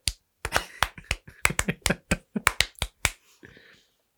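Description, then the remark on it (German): A voice imitates the rapid flapping of a rubber window seal that came loose from a car while driving on the Autobahn and slapped against the mirror: a quick series of sharp, slapping clicks in an uneven rhythm, tapering off into a softer, breathy trail. “Ach ja, obwohl wir während der Fahrt auf einmal dachten, was ist das für ein komisches Klatschen, das Geräusch. Komisch? Da ging es auf der Autobahn auf einmal so.”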